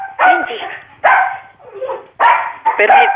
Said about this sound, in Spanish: permítame, doctora. Es un perro malcriado.